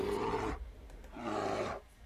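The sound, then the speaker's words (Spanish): A bear, called a Salvadoran bear, roars twice. Each roar is a loud, rough, growling burst about half a second long, separated by a brief pause. There are no voices. “Yo digo, oh, esto es un oso salvadoreño.”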